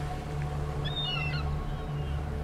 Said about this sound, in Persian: صدای آواز مرغای دریایی رو میشنویم آروم در دوردست